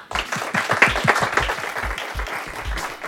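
A crowd applauds steadily, many hands clapping in a dense, continuous patter that holds at a fairly even loudness for a few seconds, with no voices speaking over it.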